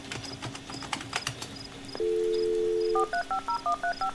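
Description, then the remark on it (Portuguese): Scattered clicks give way to a steady dial tone held for about a second, then a quick run of eight crisp touch-tone dialing beeps from a dial-up modem as a computer connects to an internet service provider, clear. “Esse ruído, que geralmente contrastava com o silêncio da madrugada, era apenas um padrão de sinais sonoros que representava uma comunicação entre o seu computador e o seu provedor de acesso à internet”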